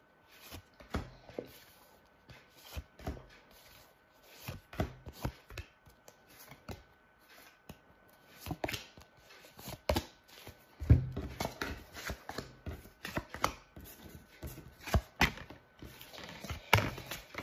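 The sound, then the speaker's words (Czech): Tarot cards being shuffled for a partnership tarot reading: irregular papery flicks, soft slaps and rustling with no talking. It thickens into a busier flurry of taps partway through, then returns to scattered shuffling. “Já už se dívám na vaše fotky, míchám u toho karty a my se spolu podíváme.”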